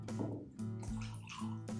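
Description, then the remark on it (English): Few Rye Whiskey from a sample pack glugs steadily into a glass in a pretty big pour, a continuous gurgling pour with rising pitch as the glass fills, lasting just under two seconds with no talking. “So let's try B, see how that tastes, all right? So it's a nice, a pretty big pour.”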